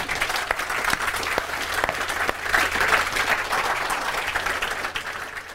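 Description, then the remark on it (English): Sustained applause from an audience thanking the panelists of an Institute of Art and Ideas debate, a dense wash of many hands clapping steadily at a fairly loud level for several seconds, with no voices rising above it. “Unless any of our panelists have a, a, a last pearl of wisdom, could I ask you to join me in thanking our very puzzling panelists?”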